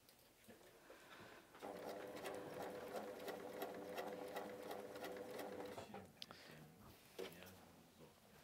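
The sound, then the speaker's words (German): A sewing machine hums and stitches steadily for about four seconds as a piece is sewn on, a continuous motor whir with rapid needle ticking, then stops, followed by a few soft clicks and handling noises. “Ich nähe das mal ein Stück an, dass man das nachher besser in der Mitte sehen kann.”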